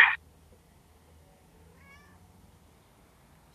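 A faint, brief cat meow rises and falls partway through, after a short sharp noise at the very start. No one speaks, and the background stays quiet.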